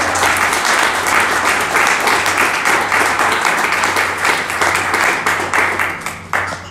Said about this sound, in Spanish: ¿Alguien dice amén a esto? ¿Alguien puede darle un fuerte aplauso a Cristo?